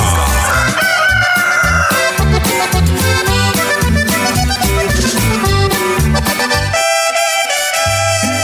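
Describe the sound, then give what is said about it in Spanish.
A rooster crows loudly over upbeat music with a steady, thumping beat, introducing the radio program Mañanas de Gloria. The crowing is mixed into the music rather than heard on its own. “Mañanas de Gloria con el gallo de Centroamérica.”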